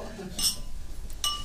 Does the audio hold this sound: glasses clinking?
yes